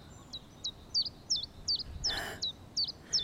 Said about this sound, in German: Da ist er wieder. Der Zilpzalp.